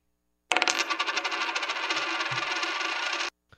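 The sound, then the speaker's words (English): A penny is shaken, rattling rapidly and continuously for nearly three seconds with a bright metallic jangle, then stops abruptly and is followed by a couple of faint clinks as it drops. No one speaks. “The penny must be shook”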